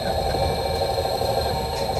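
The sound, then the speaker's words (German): A steady mechanical motor hum drones on without pause, with a low rumbling vibration and faint high whine, as a retractable roof is driven closed; no voices are heard. “Genau, das werde ich jetzt zufahren. Damit bewegt sich Rainer zu dem Motor”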